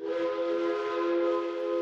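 steam train whistle

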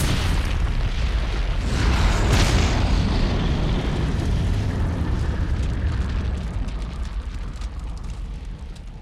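gas station explosion

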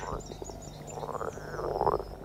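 frog croaking

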